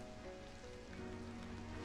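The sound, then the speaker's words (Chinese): Steady rain falling, a soft continuous hiss of drops with a faint low hum underneath, unchanging across the short stretch and with no voices. “你喜欢下雨的声音吗？”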